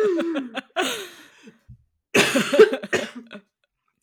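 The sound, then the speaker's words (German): Harsh, raspy coughing bursts right up close to the mic, a cluster of short hacks, a pause, then another longer, wheezy fit of coughing with a throaty rasp. “Die ganze Zeit in das Mikro röcheln”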